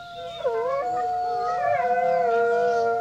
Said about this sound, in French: les loups qui se promènent dans les forêts la nuit, avec des yeux qui brillent et qui braillent des ouh qui font très peur aux brebis et aux moutons.